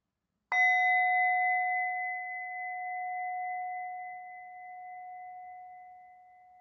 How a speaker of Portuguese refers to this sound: E quando você se sentir pronta, quando você se sentir pronto, ao soar do sino, você pode abrir os olhos ou simplesmente encerrar essa prática.